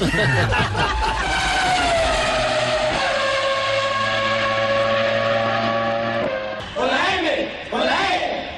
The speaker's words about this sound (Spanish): Ojo, si tu carro está sonando así. Ya es hora de cambiarlo.